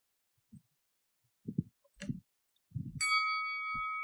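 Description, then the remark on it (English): A few soft, low thumps, then a single bright bell ding rings out clearly and sustains, its shimmering tone hanging steadily to the end without fading much. “So let me trigger up the bell here.”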